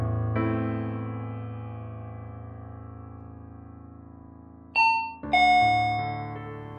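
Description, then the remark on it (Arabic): A doorbell chimes at night with a long, ringing tone that slowly fades, followed near the end by a bright two-note ding-dong, loud with no voices. “إيه، مين عم يدق علينا بهالليل؟”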